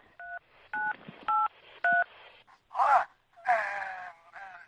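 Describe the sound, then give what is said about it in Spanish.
Four short, evenly spaced touch-tone beeps from a phone keypad, then a couple of drawn-out moaning vocal sounds and one last dial tone burst at the end. “Venga, a ver si escuchamos la segunda llamada, a ver si lo entiendes.”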